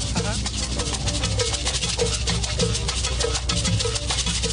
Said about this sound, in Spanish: Estas son maracas, a ver.